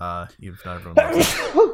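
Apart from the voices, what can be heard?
sneeze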